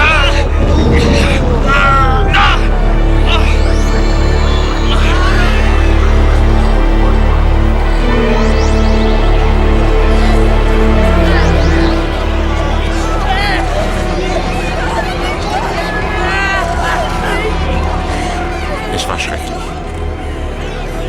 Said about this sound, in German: Eine Stichflamme war aus dem Gebäude hinter dem Rednerpult geschossen und gleich danach waren die Wände laut krachend zusammengebrochen. Menschen schrien und riefen durcheinander und taumelten durch den dichten Qualm.